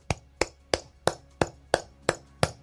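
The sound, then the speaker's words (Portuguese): A single person claps slowly and steadily, applauding a speech, eight sharp, crisp claps at an even pace, alone with no voices. “Eu vou bater palmas.”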